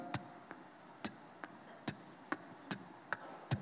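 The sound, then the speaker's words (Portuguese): A red wall clock in an office ticks steadily, sharp clicks alternating between louder and softer beats in an even tick-tock rhythm over a quiet background, with no one speaking. “Eu lembro uma vez que eu comprei um relógio vermelho super bonito para colocar no meu escritório, e eu coloquei lá, cara, ele ficava assim.”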